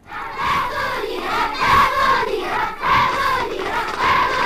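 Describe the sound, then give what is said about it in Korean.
A large group of elementary school children cheering for their teams at a school sports day, shouting in rhythmic, chant-like bursts, loud and continuous, with repeated swells as the crowd calls out in unison. “초등학교 운동의 응원 소리가 오늘 보물 소리입니다.”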